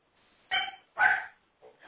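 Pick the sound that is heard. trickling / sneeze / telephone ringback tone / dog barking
dog barking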